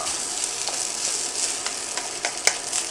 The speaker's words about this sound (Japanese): もうちゃんとパラパラなんだよなこれがすごいんだよね冷凍チャーハンねこれ適当にやるだけでちゃんとパラパラになるんですよねこれがほんとすげえなあちなみにねこのマイクをワイヤレスにしたことによってこのチャーハン作りながら録音できるようになったんだよね